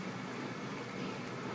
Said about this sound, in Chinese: 后面那个洗衣机就开始爆肝大声了。我刚刚以为还很安静的，欺骗我的感情